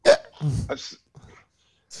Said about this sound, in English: you, are, you, are, you, are you trying to make fun of my hiccups?